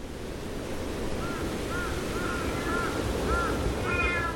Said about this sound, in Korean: 삭사울 나무 대신 커다란 전나무들이 우거진 숲속에 까마귀들이 언제나처럼 두리두리 걷고 있었습니다.